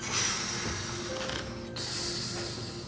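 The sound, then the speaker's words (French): A train pulling into a station, a steady rumble with airy hissing and a thin, sustained squeal of brakes running through it, with no voices. “Le train approche à ce moment-là.”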